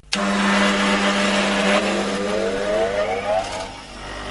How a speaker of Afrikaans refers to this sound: as jy nou luister hoe loop die ander skuurder